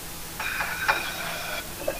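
Running water hisses steadily from a tap for a couple of seconds while dishes are washed, with a light clink of dishes partway through and another small knock as the flow stops.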